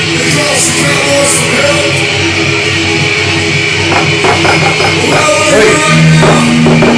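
Live heavy metal concert in Moscow with a crowd of over a million people: dense, loud distorted music wash blended with a roaring crowd, and sharp pounding drum hits emerging in the second half at a steady, driving pace.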